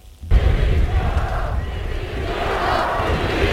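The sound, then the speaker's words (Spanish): At the Spanish Armed Forces parade, a large crowd erupts suddenly into loud, sustained booing and angry shouted chants calling for Prime Minister Pedro Sánchez's resignation, a dense roar of many voices that keeps going without a break. “Abucheos y gritos de dimisión.”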